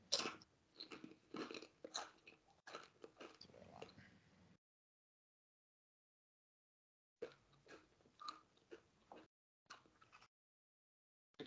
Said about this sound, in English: … is crunching on some good old fucking popcorn chips or something.